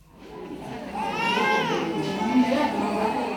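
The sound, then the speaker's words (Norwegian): A baby wails in a drawn-out, rising and falling cry over a steady murmur of voices and room noise in the waiting area of the Bwaila health centre in Lilongwe, Malawi, full of women with newborn babies waiting for the BCG tuberculosis vaccine. “Helsesenteret Bwaila i Malawis hovedstad Lilongwe er fullt av kvinner med nyfødte babyer på fanget.”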